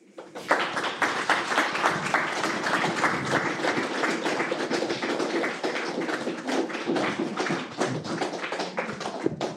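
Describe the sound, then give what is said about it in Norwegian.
An audience applauds guest Hans Ragnar at the close of a talk and question session, steady for several seconds, a dense, bright wash of many hands clapping at a fairly even loudness, with no voices heard over it. “og gjerne igjen, Hans Ragnar, en applaus.”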